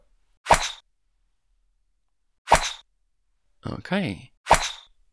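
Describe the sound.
Three sharp, crisp golf club strikes on a ball, evenly spaced about two seconds apart, each a bright percussive crack with a short tail; a voice speaks briefly between the second and third hits.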